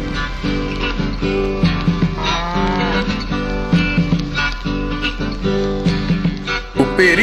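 Cattle mooing loudly, several long, low bellows following one another and overlapping almost continuously, like a small herd calling, with no voices present.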